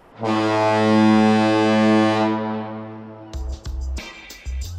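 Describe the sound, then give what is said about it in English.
A single long, deep foghorn blast at the San Francisco Bay Bridge, sounded from the office by the toll plaza using a touchscreen monitor on a day with no fog, booms loudly for about three seconds with a rich, droning tone, then cuts off as a voice begins speaking. “We can't volunteer to put a foghorn on our house.”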